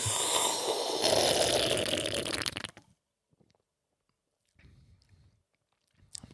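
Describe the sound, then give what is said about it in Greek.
A loud slurp of green-coloured fizzy orange Fanta rushes for a couple of seconds, then cuts to near silence broken by a soft, brief swallow-like sound and a faint click. “Και ρε μαλάκα μια γουλιά να μα πει τι στον Μπούτσο είναι.”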